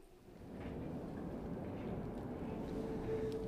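A steady, low rumble of a late tram rolling by in the distance, fairly constant throughout, with a faint high metallic squeal of wheels rising near the end.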